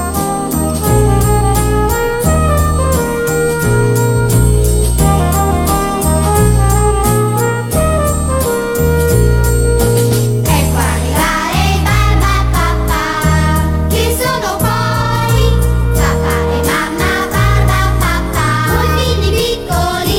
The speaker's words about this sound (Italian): Resta di stucco, è un barbatrucco e noi ci ascoltiamo la sigla dei Barba Papà.